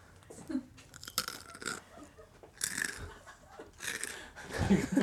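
Crunchy bites and chewing, a series of crisp crackling bursts with wet mouth sounds between them, fairly loud, with no talking over it.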